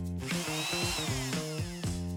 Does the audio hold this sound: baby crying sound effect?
no